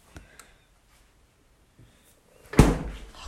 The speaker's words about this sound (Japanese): 開ける彼氏の冷蔵庫